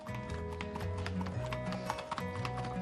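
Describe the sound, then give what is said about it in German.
Horse hooves clip-clop in a steady, quick rhythm, fairly loud, on a horse farm in Wurz, Upper Palatinate, Germany, with a low continuous hum of outdoor background underneath. “Neben Schritt, Trab und Galopp können die Pferde noch mindestens eine weitere Gangart wie Tölt.”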